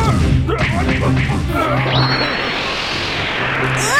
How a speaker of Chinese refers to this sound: 还没完呢，宝葫芦砸他！